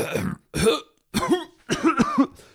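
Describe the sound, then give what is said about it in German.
A person coughs in several loud bursts after inhaling something, with short pauses between them and a quick double cough near the end, sounding like rough throat-clearing coughs. “Huste und fange an, eine schwitzige Stirn zu bekommen, was natürlich nochmal ein bisschen crazy aussieht.”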